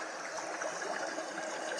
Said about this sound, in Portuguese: Bem, agora estamos à beira do córrego.